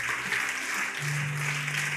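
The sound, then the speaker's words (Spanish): A church audience claps together in dense, sustained applause, a steady wash of many hands, with a low hum or tone entering partway through. “Junte sus palmas.”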